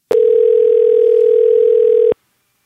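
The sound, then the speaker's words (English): A single long telephone ringing tone plays while a call is being placed: one steady, loud electronic hum lasting about two seconds, clicking on and off, with no voices. “So now it's time for a segment of the podcast called Phone a Friend, where we do just that phone a friend.”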